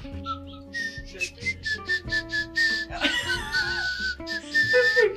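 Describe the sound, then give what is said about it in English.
A person whistles a short, wavering tune while smiling, the notes breathy and slightly broken, with airy puffs between phrases. “Because you heard whistling, but your mouth was smiling.”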